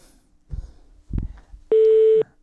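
A telephone busy tone sounds as the call drops: a loud, steady electronic beep lasting about half a second, preceded by a couple of dull handling thumps on the line.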